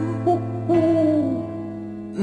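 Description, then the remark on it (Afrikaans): An owl hoots in a low, drawn-out tone, fairly loud, with a few brief rising swells in pitch across about two seconds. No one speaks. “Ja, uil van die muise altyd skuil.”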